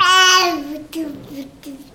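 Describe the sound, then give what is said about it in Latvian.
A one-year-old girl babbles, starting with a bright, high-pitched drawn-out vocal sound, then a few shorter wordless syllables in a sing-song rhythm. “Jā, un arī sevi piesaka. Latvijas radio klausītājiem dzirdami.”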